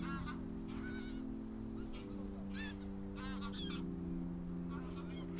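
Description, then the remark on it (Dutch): Distant water birds call in scattered honking bursts, goose-like and repeated, heard on the water at Muiderslot castle with reeds moving in the wind, over a steady low hum and faint background noise. “Bijvoorbeeld dat riet, maar ook verschillende watervogels die toen al leefden.”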